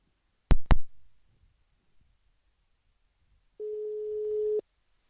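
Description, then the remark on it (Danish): Two sharp clicks on the line, a pause, then a single steady ringback tone of about one second while calling someone, a flat electronic buzz heard alone with no voices. “Så lad os prøve at ringe til ham.”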